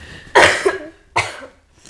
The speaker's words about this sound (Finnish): Eikö, mun pitää vähän yskiä nyt. Yskiä.